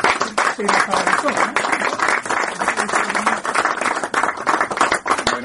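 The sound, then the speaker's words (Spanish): A crowd applauds steadily for several seconds, a dense, continuous patter of many hands clapping at once, fairly loud and sustained without a break. “de eh, agradecimiento de nuevo y un aplauso, ¿no?”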